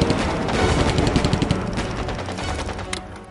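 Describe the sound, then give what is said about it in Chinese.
A machine gun sweeps fire aimlessly as an enemy Japanese armored patrol vehicle approaches from the direction of Lingcheng, loud, rapid bursts, a dense rattling stream of sharp cracks that keeps going for several seconds with a deep, rumbling low end beneath the shots. “突然，从北面闪起一道白光，敌人的一辆装甲巡逻车从凌城方向开了过来，刺眼的探照灯光在他们头上晃来晃去，一挺机枪在毫无目标的扫射。”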